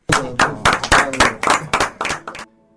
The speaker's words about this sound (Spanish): Ahí se escuchan los aplausos para el gran Pepe Soriano, eh, que a los 93 años está ahí protagonizando la mejor película del año